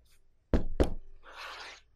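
Two quick, solid, loud knocks on a door with a small red eagle painted on it, followed by a short rough scraping of a knife across the door; no one speaks.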